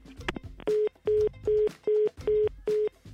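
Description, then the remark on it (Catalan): A quick run of six evenly spaced telephone keypad tones as a phone number is dialed, each a short, loud electronic beep with brief gaps between, with no voices over them. “us demano que truqueu a telèfons a l'atzar i truqueu al CNI i a la productora executiva dels 40 principals”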